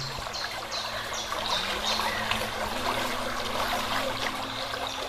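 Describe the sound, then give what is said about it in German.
Steady babbling of a spring in a desert oasis, a continuous trickle and splash with bright gurgling detail and a low hum underneath, no voices. “Und du hörst die ganze Zeit dieses Plätschern der Quelle.”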